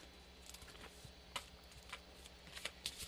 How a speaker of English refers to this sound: I'm going to shuffle. So we'll see what comes up.